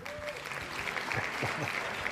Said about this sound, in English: The applause is stellar. That's what I wasn't expecting that. Uh, well you got to throw that in there. You know what I mean? Thank you. We, we, we recorded that with like a bunch, like a 20 people in a room one day,